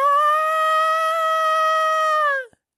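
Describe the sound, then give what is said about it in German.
A voice imitates a scream with one loud, high-pitched, sustained cry held steady for over two seconds, then cut off abruptly, alone with no other sound. “gerade als sie als Taser sagen will, worum es geht, ertönt ein Schrei”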